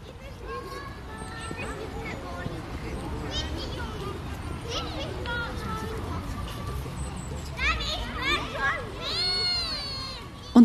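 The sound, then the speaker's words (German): A crowd of children with their teacher playing on a lawn, their overlapping high-pitched voices, shouts and squeals forming a steady babble, with a few louder excited calls rising near the end. “Dafür ist eine ganze Traube von Kindern mit ihrem Kinski-Lehrer auftaucht. Sie haben den Rasen genauso bespielt”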